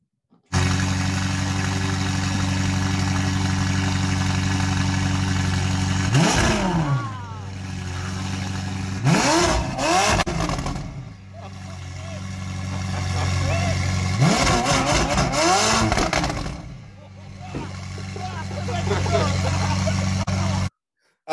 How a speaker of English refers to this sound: Hey guys, you like that sound? You like the sound of the McLaren?